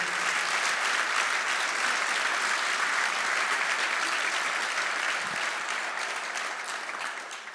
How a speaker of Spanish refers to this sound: Vamos, dale un aplauso al Señor si tú lo crees conmigo.